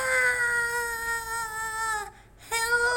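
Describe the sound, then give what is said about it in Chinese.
A voice imitates a scream heard near a bank in a superhero story, a long, high-pitched, sustained wail lasting about two seconds, then breaks off briefly before the cry starts up again. “有一天呢，在一个银行的附近传来了一个尖叫声，啊”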